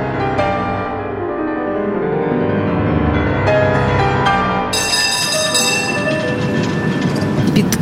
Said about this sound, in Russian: колесом набитый трамвай швыряет из стороны в сторону.